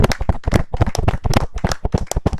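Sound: round of applause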